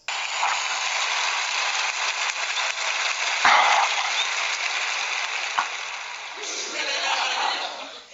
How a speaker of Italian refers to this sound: Beh, ascolta, ma perché hai messo la risata? No, scusami, cioè, dopo gli applausi la risata, cioè, Cocco, basta, eh, far la regia così